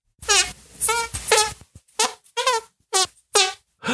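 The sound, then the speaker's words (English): A series of about seven fart noises made with the hands, buzzy and squeaky with a wavering pitch, come in quick, uneven bursts. They are loud, with no talking over them. “Yeah, go fart with your hands.”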